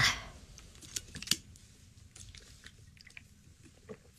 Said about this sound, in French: Je peux même prendre une gorgée d'eau, si vous voulez. Oui, bonne idée, aussi.